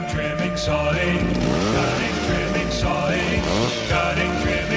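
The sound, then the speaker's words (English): A chainsaw engine runs loud, its whine rising and falling in repeated revs as it cuts through wood, with a steady buzzing idle in between. “sawing, cutting, trimming, sawing. Through the wood you're drawing, while your neighbor's jawing chainsaw.”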